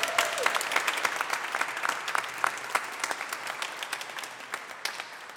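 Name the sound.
audience applauding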